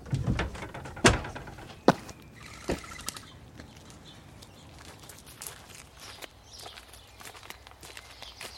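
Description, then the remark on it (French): A living-room French window slides open with a few sharp clunks and shuffling footsteps as two children slip out through it, followed by quieter outdoor ambience with faint chirps. No one speaks. “Nils et Maya enfilent leurs chaussures et se glissent par la porte-fenêtre du salon”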